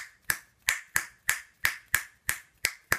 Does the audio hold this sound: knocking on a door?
no